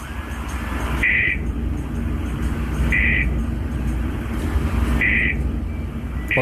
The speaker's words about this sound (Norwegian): Den lyden er en komfyrvakt som slår seg ut ved at varmen over sensoren når